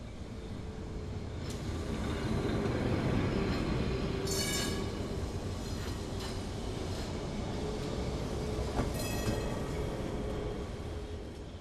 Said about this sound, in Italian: L'iconico tram elettrico si muoveva lento, rassegnato al suo ruolo di trenino turistico.